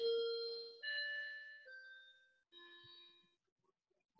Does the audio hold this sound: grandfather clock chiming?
yes